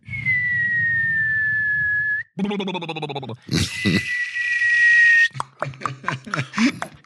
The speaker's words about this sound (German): Oh, was höre ich da? Höre ich da noch ein paar Raketen?